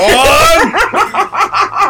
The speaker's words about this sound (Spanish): Estamos hablando de ratas gigantes y tú ladras. Nada que ver, eh, el, el ladrido que acaban de escuchar es de Queen. Eh, es de la reina. Es de la reina de la casa, Queen.